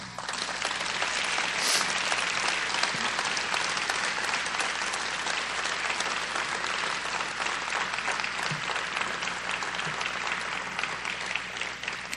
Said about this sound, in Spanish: ¿Qué les parece si le dan un aplauso al Señor?